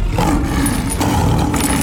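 A tiger's deep, rumbling roar fills the whole stretch, loud, rising and falling slightly with a rough, growling texture and no voices over it.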